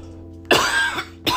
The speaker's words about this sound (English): Excuse me. There goes the cough.